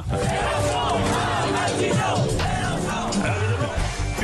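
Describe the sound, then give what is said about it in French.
A dense protest crowd at Place de la République yells and shouts continuously, many voices overlapping into a loud, sustained roar with chant-like surges, unbroken throughout. “le week-end, vous sortez la Batmobile et direction Place de la République pour hurler avec les copains”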